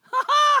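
A single loud, voiced sneeze with a short intake followed by a longer, tonal burst, heard on its own with no talking.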